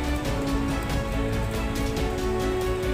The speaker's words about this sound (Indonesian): aku tahu kau berada di dalam bersembunyi di dalam ruangan tapi tetap saja kau tak bisa sembunyi dari suara hujan